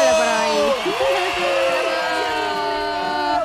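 An audience cheers and applauds on a radio show to welcome la Pacheco, with loud overlapping whoops and shouts over a steady wash of clapping that holds for several seconds without letting up.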